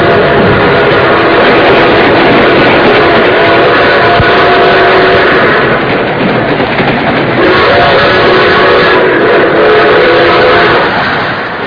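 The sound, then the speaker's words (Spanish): A passenger train bound for Mexico City rumbles along steadily, its dense, continuous roar joined by the sustained tones of a steam whistle sounding through much of the stretch. No one speaks. “Eh, tardaremos todavía algunas horas en llegar a la Ciudad de México. Vamos al coche comedor si gustan.”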